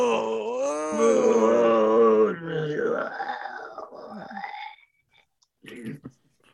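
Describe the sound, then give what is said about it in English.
A voice imitates a pale, profusely sweating character bitten by a zombie snake, waking in the morning with a long, drawn-out wavering moan that sinks into a weak groan, followed by a short breathy grunt after a brief pause. “Uh, you do you do wake up in the morning to Bo moaning quite extensively.”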